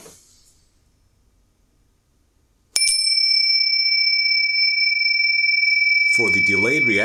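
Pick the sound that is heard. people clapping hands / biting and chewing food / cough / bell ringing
bell ringing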